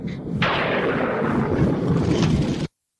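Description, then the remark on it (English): A loud thunder crack in a film scene bursts in after a brief quieter moment, then a heavy, continuous rolling rumble fills the low end for about two seconds before cutting off abruptly into silence. “Authentic lightning. Authentic thunder.”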